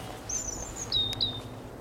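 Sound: european robin calling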